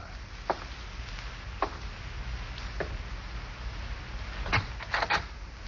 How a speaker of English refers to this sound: Slowly, you walk to the front door.